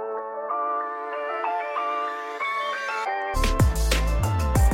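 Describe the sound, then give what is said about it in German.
A song plays on the radio station 100,0 at steady volume: a sustained, layered melodic intro that builds, then after about three seconds a full arrangement kicks in with punchy drums and deep bass. “Perfekt, dann hören wir da jetzt mal rein und äh, gleich geht es dann um dein neues Album ….”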